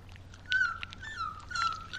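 A dog whimpers in a thin, high whine that rises and falls in a few drawn-out pulses, moderately loud over a low background hum.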